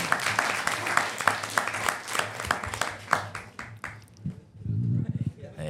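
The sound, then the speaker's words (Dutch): Microphone handling noise: a rapid, uneven run of sharp clicks and knocks as the mic is turned and adjusted, ending in a brief low rumbling scrape. “ja, even draaien, even draaien aan de microfoon.”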